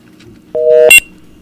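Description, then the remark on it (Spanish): A telephone line beep as the call drops: a steady electronic tone lasting about a third of a second, cut off by a brief, louder, harsher burst, then quiet line noise. “Ah, pero también se fue el teléfono.”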